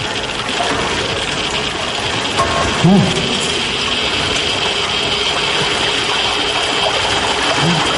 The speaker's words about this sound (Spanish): Reparan en una surgencia de agua que emana a borbotones junto a una pared.